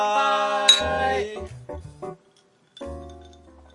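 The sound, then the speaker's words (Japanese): A single bright clink of glasses touching in a toast rings out over a sustained, tonal musical backing that pauses briefly and then resumes. “この仕事上がりに一杯やってくこの番組は飲めない二人が一杯やりながらぐだぐだしゃべるポッドキャストですウィーはい乾杯”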